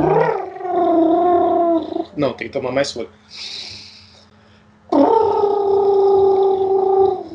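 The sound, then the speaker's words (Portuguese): A person imitates a pigeon's call with two long, low, humming vocal tones, separated by a brief spoken remark and a soft breathy pause. “um pombo, né? É, tem que ser o pombo, eu tenho que.”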